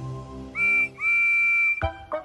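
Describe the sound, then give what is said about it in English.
A steam engine whistle sounds twice, a short high-pitched blast then a longer steady one, loud and clear, followed by two brief bursts of hissing, chuffing noise. “He has four small wheels, a shiny dome, a shiny brass whistle, and a shiny black funnel.”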